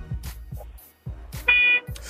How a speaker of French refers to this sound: Eh bien, en tout cas, c'est parti pour le klaxon game.